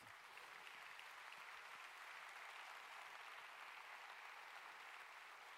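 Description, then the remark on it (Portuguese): An audience applauds steadily, a dense wash of many hands clapping at once that holds at an even, fairly loud level for several seconds without any talking. “Isso, ele merece um aplauso.”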